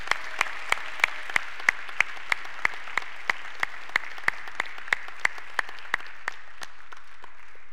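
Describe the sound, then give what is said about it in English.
An audience applauds in appreciation of a couple's ministry. A steady, evenly spaced run of sharp claps stands out above a soft wash of crowd clapping, which gradually tapers off near the end. No one speaks. “Can you, and beyond that, can we just give them a, a round of applause and appreciation for all that God has done in and through their ministry?”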